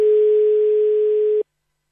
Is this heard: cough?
no